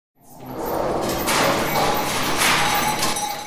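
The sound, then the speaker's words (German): A kinetic sculpture by Jean Tinguely titled Ballet des Pauvres, made of worn clothes and broken household objects such as a tea kettle, pans and trays, rattles and clanks nonstop. It is a loud, dense jumble of thuds, clinks and scraping metal with a faint squealing tone running through it. No one speaks. “So klingt eine Skulptur von Jean Tinguely.”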